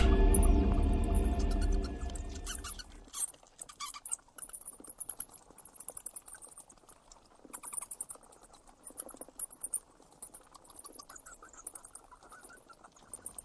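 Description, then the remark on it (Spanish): A colony of bats in a very deep cave chitters and squeaks in a dense, restless chorus of high-pitched calls and rapid clicks, following a brief low rumble that fades out at the start. No one speaks. “Lo que estáis escuchando es un auténtico racimo de murciélagos en una cueva muy profunda, en una cueva con rastros prehistóricos, la cueva Apolo 11.”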